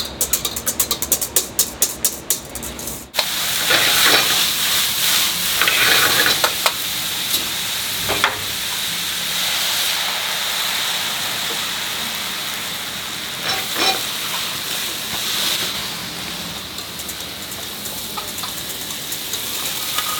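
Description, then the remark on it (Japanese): Mont Saint-Michel-style omelette rice cooking in a pan at The Monkey Chews Kitchen, a five-minute walk from Kamata Station: a rapid burst of whisking taps for a few seconds, then a steady, loud hiss of frying and sizzling with occasional scraping stirs, no talking. “今朝は蒲田駅から徒歩5分ザ・モンキーチューズキッチンモン・サン・ミッシェル・オムライスのいい音それではお聴きください”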